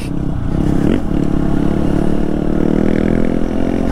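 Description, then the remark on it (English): A dirt bike engine drones steadily and loudly on a ride with a Honda XR150L and a KTM XCF-W 350, its low throbbing note rising and falling slightly as the rider works the throttle, with faint clattering and scraping from the dry, dusty dirt trail in Bent Creek, Pisgah Ranger District. “Honda XR150L & KTM XCF-W 350: Pisgah Ranger District”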